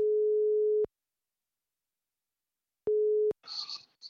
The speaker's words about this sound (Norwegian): og nå skal vi ringe han.